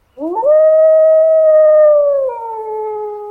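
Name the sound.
wolf howling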